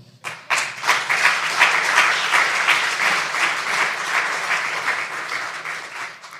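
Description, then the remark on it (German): A crowd at a church service breaks into sustained applause for Jesus after a prayer, many hands clapping in a dense, steady patter that starts abruptly and stays loud throughout without any voices. “Applaus für Jesus.”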